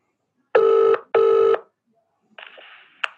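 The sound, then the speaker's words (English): A telephone rings twice in a steady double burst, loud, then the line clicks and a faint muffled rustle follows as the call is picked up, with no one speaking. “So that, that's what happens when you phone and the person receiving the call is really concentrating on trying to get the exact detail right.”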